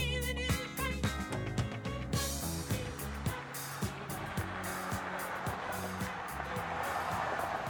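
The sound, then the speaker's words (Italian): A car goes by on a street in piazzale Marsano, Genoa, Italy, where there is little traffic and only an occasional car passes, with a rising hiss of tyres and engine noise, over a steady low hum and scattered sharp knocks; no one speaks. “In piazzale Marsano 10, a Genova, non c'è mai molto traffico, solo qualche macchina che passa ogni tanto, come potete sentire.”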